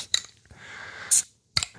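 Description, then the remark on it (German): A wheat beer bottle is opened: a few sharp metallic clicks and clinks, a brief soft hiss, then a bright clink of the cap coming free, followed by more handling taps. “Hier, ich öffne, ich öffne.”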